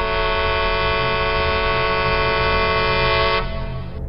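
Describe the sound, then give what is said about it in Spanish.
The air horn of a huge semi-trailer truck on a road blares loudly and continuously for over three seconds, its rich harmonic tone steady before cutting off, with a low engine rumble underneath throughout. “En ese momento, un enorme tráiler hizo sonar su claxon.”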